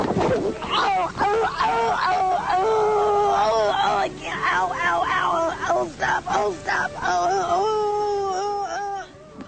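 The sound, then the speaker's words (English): A voice wails loudly in pain, with wavering, strained moans that rise and fall in repeated bursts and short breaks, sounding like anguished crying throughout. “Shane McMahon made noises like that woman who falls stomping grapes in YouTube video”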